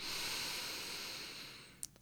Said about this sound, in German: Dafür atmen wir tief in unseren Bauch ein und wieder aus. Der Bauch wird dabei rund und groß. Wir atmen wieder tief in den Bauch ein